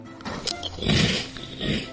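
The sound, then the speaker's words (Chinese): Loud, crackly crunching of a crispy strawberry-flavored egg white crisp snack from a jar, with a sharp snap followed by two rough, noisy bursts of chewing, and no talking. “吃一个给你们看看，你们听听声好不好？”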